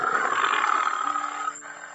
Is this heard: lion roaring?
yes